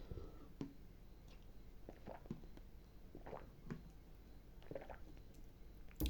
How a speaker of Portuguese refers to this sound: Calma aí que eu vou tomar uma água, que eu tô com a boca seca.